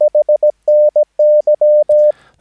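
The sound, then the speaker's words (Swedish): A steady, clear mid-pitched tone keyed in Morse code radiotelegraphy, spelling HNY (Happy New Year): a quick run of short dots followed by longer dashes and dots, ending with a brief soft click of noise. “Helge Niklas Yngve, HNY, eller Happy New Year som det är när man skickar över telegrafi med eh, morsekod.”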